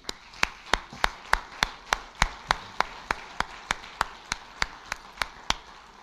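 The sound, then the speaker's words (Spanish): A church audience applauds for their pastor during pastor appreciation month, in a steady, even rhythm: about eighteen sharp, crisp claps, roughly three per second, moderately loud and clear with no voices over them. “Así que mandamos un saludo al pastor, damos un aplauso por nuestro pastor.”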